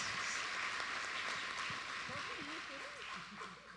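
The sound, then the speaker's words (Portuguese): A church audience applauds the Lord after a prayer, in a steady, dense wash of clapping, while a few voices call out and murmur over the top. “Aplauda o Senhor.”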